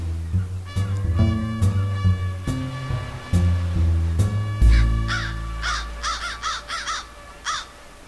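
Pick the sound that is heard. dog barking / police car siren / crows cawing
crows cawing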